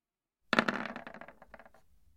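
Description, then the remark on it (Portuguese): Dice clatter onto a table with a sharp initial hit, then a quick run of bright, rattling clicks that bounce and tumble for over a second before settling. “Rola, rola.”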